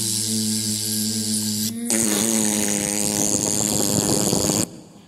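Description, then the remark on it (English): A voice imitates a fly's buzz, a steady droning hum that breaks into a louder, raspy, sputtering buzz like a tiny fart, held for a few seconds before cutting off. “Now, that is what you call a flatulent fly.”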